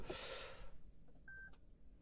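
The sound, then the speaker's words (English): A Lexus 450h hybrid SUV's ready beep at start-up after pushing the start button: one short, clear, steady mid-high electronic tone, heard after a burst of soft rustling noise, with a quiet low rumble underneath. “It beeps to tell me it's ready.”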